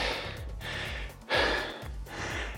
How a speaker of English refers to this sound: But certainly did, we can tell by how heavy I'm breathing this time certainly felt like a lot of work.